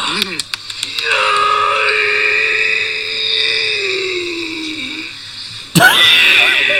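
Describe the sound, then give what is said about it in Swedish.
Two shirtless men hitting each other grunt and let out a long, strained scream, a drawn-out vocal cry lasting several seconds, followed by another sharp shout. The voices are loud, with short grunts at the start. “Och skriker.”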